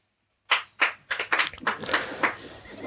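A single audience member claps hands, answering a request to clap in Morse code, starting with a few spaced, sharp claps and then speeding into a quicker, uneven run of claps, like a rhythmic pattern being tapped out.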